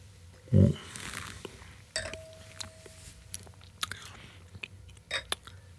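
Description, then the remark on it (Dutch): Quiet mouth sounds of wine being sipped and swallowed straight away without slurping: a soft thump of a gulp, an airy slurp, then small wet clicks and smacks, with a faint ringing tone in between. “Dat doen we ze niet aan, we slikken het maar meteen door.”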